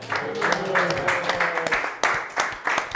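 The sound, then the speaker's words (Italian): A crowd breaks into steady, dense applause that fills the whole stretch, with a voice briefly audible underneath near the start. “Deve scattare l'applauso qui però.”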